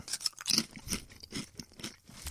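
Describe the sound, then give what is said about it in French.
Someone crunches Ruffles potato chips, a run of crisp, brittle bites and chewing crackles in an irregular rhythm, moderately loud with no talking. “Ces chips-là sont un pur bonheur en bouche. Puis clairement, j'en mange souvent.”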